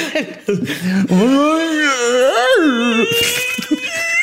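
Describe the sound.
A voice imitates the imbunche creature with drawn-out, wavering moans and guttural cries that rise and fall in pitch, loud, with no actual words.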